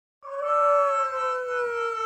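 A dog lets out a single long, steady howl, loud and high-pitched with a rich tone, gliding slightly downward and holding for about two seconds with no talking.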